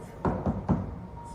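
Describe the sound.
Three quick knocks in a steady rhythm, like knuckles rapping on a wooden closet door, done as an imitation with no talking over them.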